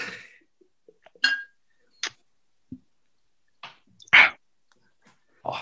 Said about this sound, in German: ich möchte ganz feierlich das Glas erheben und mit euch gemeinsam auf 50 Packmas Folgen anstoßen